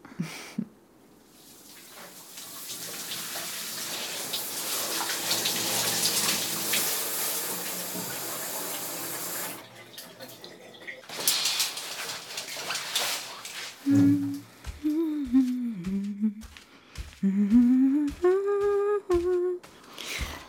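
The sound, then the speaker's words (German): A shower runs with a steady, hissing spray of water for several seconds, pauses briefly, resumes, then gives way to a voice making short, tonal vocal sounds. “Ich muss zuerst duschen.”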